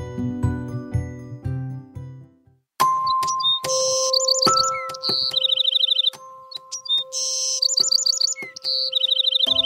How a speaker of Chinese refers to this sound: 在大森林里有一只小鸟，它有一个很好的朋友。这个朋友是一棵高高的大树。小鸟每天站在树枝上，给大树唱歌听，而这棵大树呢，也天天认真的听小鸟歌唱。